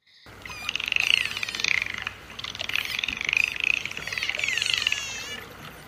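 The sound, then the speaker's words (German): Dolphins chattering and squeaking as they are given a fish as a reward: a busy stream of shrill whistles, rising squeals and rapid clicking chatter, coming in overlapping bursts for several seconds with no voices. “Die Schnatter- und Quietschtöne von Delfinen, wenn sie einen Fisch als Belohnung bekommen, haben, sind wohl auch ein Zeichen von Freude, sagen Wissenschaftler.”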